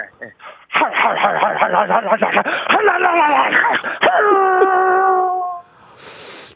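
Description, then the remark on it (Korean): A voice imitates an American motorcycle engine: a loud, throaty chugging idle that swells into a long sustained revving drone, lasting about five seconds before cutting off. “예, 아메리칸 오토바이 한번 해보.”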